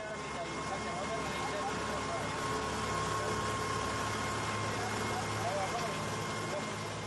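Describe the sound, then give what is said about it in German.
A boat returning from the town of Bohr, its engine droning steadily and fairly loud throughout, a low rumbling motor hum with indistinct voices mixed into the background noise. “Dieses Boot kommt gerade aus Bohr zurück.”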